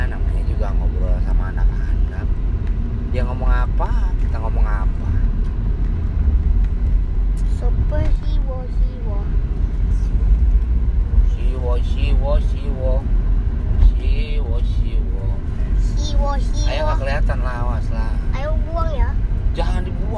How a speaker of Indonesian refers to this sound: jadi kita ini sambil nyetir mobil